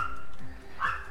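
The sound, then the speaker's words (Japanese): A dog barks a couple of times, short and fairly faint yips against a steady outdoor background hum, heard during a morning walk at the end of summer, with no one talking. “ちょうどね夏の終わりってことでだいぶセミの音とかもうるさくなくなってきましたねカラスの声とあとちょっと他の鳥の鳥がなんかワンと言っているそんなことないか犬犬ですね失礼しました”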